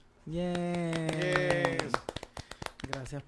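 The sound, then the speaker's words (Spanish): Audience applause welcoming a guest, a comedian and pop culture analyst: a voice holds a long, steady note while a few claps sound beneath it, then a short, sparse burst of irregular handclapping follows and fades after about a second. “Con ustedes, por favor, recibamos con un fuerte aplauso a nuestro queridísimo amigo, comediante y analista de cultura pop,”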